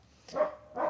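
A male dog barks twice in quick succession, two short, fairly loud woofs with no one talking over them.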